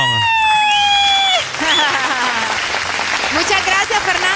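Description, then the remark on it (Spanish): A steady high whistle-like tone sounds for about a second and a half, then a loud burst of applause takes over, dense and continuous, with cheering voices and whoops mixed in. “Te ganaste mis aplausos.”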